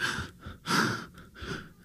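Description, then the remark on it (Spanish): A person imitates the labored gasping of someone with COVID who is running short of breath, with several quick, strained, breathy inhalations and exhalations in an uneven rhythm, moderately loud, with no words spoken. “O sea, sabía y estaba consciente de que no podía mantener bien mi respiración, de que estaba como las personas que han tenido COVID y no me van a dejar mentir cuando les empieza a faltar la respiración que empiezan a hacer.”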